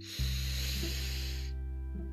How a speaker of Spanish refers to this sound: Respiramos profundamente. Aguantamos respiración Volvemos a inhalar.